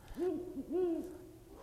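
A Ural owl gives a few deep, resonant hoots in quick succession: a drawn-out note, a short clipped one, then another long hoot, heard alone against a quiet outdoor background.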